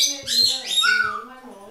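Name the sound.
birds chirping indoors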